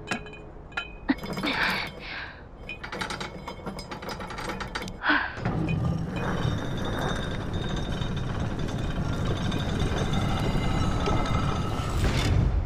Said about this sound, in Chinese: 门开了，又一道门，门上有字。哦，这是个过渡舱，得先把第一道门关上，才能把这道门打开。